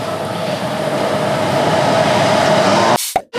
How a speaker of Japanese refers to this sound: 電車が来ますはいもうちょい内側に入った方がいいかもしれないですね